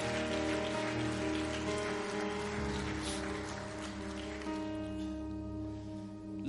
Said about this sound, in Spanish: Vamos, dale fuerte ese aplauso al Señor. Dale fuerte ese aplauso al Señor.